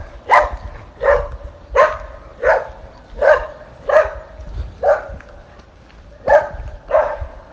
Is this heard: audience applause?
no